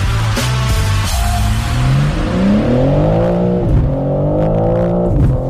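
The engine and flap exhaust of a BMW M3 Touring family estate car rev loudly, the pitch rising and falling through several surges with a throaty exhaust burble, no voices present.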